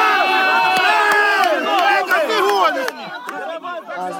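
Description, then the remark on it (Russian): A large, agitated crowd of several hundred supporters with party and Ukrainian flags shouts over one another while arguing with border guards at the Shehyni border checkpoint in Ukraine, dozens of raised voices clashing. The din stays loud and dense throughout, thinning a little near the end. “значит, вот толпа этих сторонников, ну, там несколько сотен человек, это те, которые стояли вот близко-близко к пограничникам возле самого этого пункта.”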